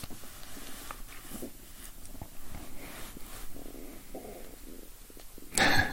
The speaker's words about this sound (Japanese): なんかめっちゃお腹が鳴るのなんだろう。めちゃくちゃお腹が鳴りまくって。